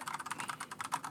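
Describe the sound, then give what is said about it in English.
Rapid, uneven clicking of computer keyboard keys being typed on during research, a steady stream of crisp taps with no voices. “I apologize for my keyboard. That's the sound of research.”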